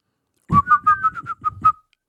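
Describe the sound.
A person whistles a quick, bouncy dance tune, about seven short pitched notes in a lively rhythm over roughly a second and a half, with a soft breathy undertone.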